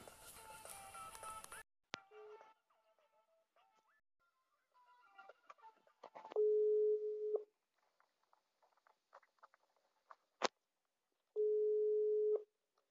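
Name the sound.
phone call tone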